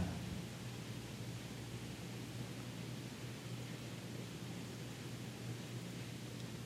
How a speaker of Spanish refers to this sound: y escucho los sonidos de la lluvia. gotas cayendo.